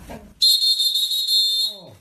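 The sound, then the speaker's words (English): A single sustained, shrill blast of the Titanic's steam whistle rings out loud and steady for over a second, with brief bits of voice just before it starts and as it cuts off. “Get the get the whistle from the Titanic.”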